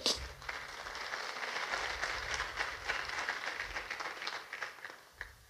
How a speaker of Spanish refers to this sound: Dele fuerzas y aplausos al Señor.